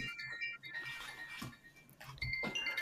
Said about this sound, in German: Das war meine Apple Watch, weil ich nur mein Handy auf Stumm geschaltet habe.